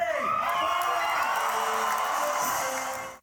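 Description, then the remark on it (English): A large crowd at New York Comic Con cheers and whoops loudly and continuously for Michael J. Fox and Christopher Lloyd appearing on stage together, a dense roar of shouting voices with scattered high yells over steady applause, fading slightly at the very end. “The two characters appeared on stage at New York Comic Con over the weekend and received thunderous applause.”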